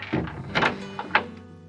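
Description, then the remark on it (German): A pig stable door carefully pushed shut, a few dull thuds and knocks as it swings and settles into the frame, followed by a brief low ringing. No voices. “Er zog seinen kopfschüttelnden Papa aus dem Stall und schloss sorgfältig die Tür”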